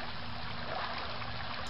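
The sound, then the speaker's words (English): Floodwater rushes through a street in a steady, continuous wash of churning water, moderately loud, with no voices over it. “the streets are literally rivers.”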